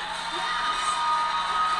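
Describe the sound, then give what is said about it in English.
An audience at a candidates' debate cheers and applauds steadily throughout, a dense wash of clapping with whoops and shouts rising above it, loud and continuous with no talk over it. “Don't applaud that.”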